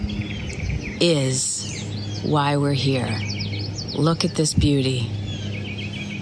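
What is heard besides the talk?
birds chirping outdoors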